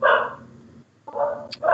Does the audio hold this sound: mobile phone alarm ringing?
no